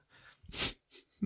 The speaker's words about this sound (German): Gesundheit.